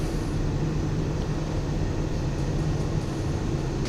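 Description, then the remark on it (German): A steady, low mechanical rumble with a constant hum runs without a break as a horse cremation cart, started from a control panel, rolls slowly and automatically into a horse cremation oven. No voices are heard. “Jetzt ist der Wagen dann gleich ganz im Ofenraum eingefahren.”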